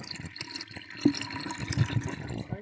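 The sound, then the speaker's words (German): Water runs steadily through an aquarium siphon hose while the aquarium floor is being cleaned, a continuous gurgling flow with a few louder splashes and bubbling pops, no voices over it. “Also, ihr hört hier schon das Wasser.”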